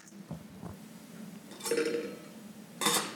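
A metal pan and lid clatter: one scraping clank with a short metallic ring, a brief pause, then a second sharper clang, with no talking.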